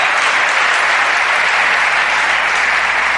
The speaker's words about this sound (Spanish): Vamos, dar ese aplauso fuerte al Señor.